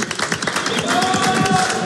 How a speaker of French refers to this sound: Bravo, bravo Michel. Félicitations, on applaudit Michel de Boulogne-sur-Mer.